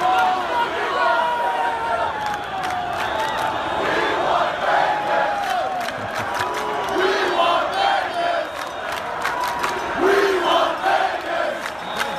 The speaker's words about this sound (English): here's a little bit of crowd noise from outside for you